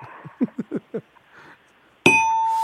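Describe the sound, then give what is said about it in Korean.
A single loud quiz-show failure bell strikes near the end and rings on with a bright, sustained tone, after a quick run of five soft, muffled thumps. “일부러 땡을, 딩동댕을 칠 수 없습니다.”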